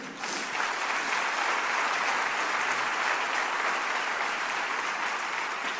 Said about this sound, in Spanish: Ahora sí, dale un fuerte aplauso al Señor.